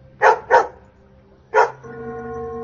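A dog barks three times, two sharp barks in quick succession, then a single bark after a pause, followed by a steady, faint tonal hum.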